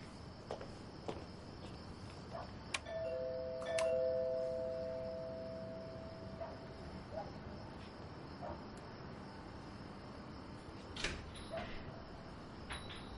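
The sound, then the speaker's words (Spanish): A man arriving at his brother-in-law's house rings the doorbell, a two-note chime whose tones linger and fade over several seconds, set against a steady chorus of crickets; a few faint clicks and thumps, and no one speaks. “llega a casa de su cuñado y toca el timbre.”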